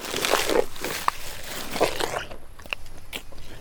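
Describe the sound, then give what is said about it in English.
Wet lip smacks and chewing crunches from an elephant, recorded right up in its face, a cluster of sharp moist clicks and crackles repeating irregularly, loud and intimate with no talking. “Like I just felt like there were a lot of things that if you got right up in the elephant's face, like, and then there's the lip smack,”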